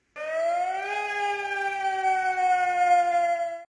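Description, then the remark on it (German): A loud red-alert alarm siren rises in pitch and then holds a steady, harsh droning wail for about three seconds before cutting off abruptly. No voices are present. “Ja klar, also dann herrscht natürlich Alarmstufe Rot.”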